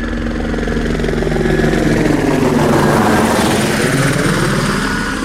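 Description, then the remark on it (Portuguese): A helicopter passes close overhead near a radio station, its loud rotor chop and engine drone swelling and shifting in pitch as it goes by, steady and continuous with no one speaking. “E agora acabou de passar um helicóptero aqui pertinho da gente.”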